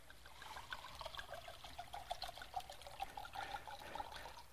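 Water trickles and pours steadily into small containers, a continuous bubbly dribble with bright splashy gurgles, fairly quiet, with no one talking.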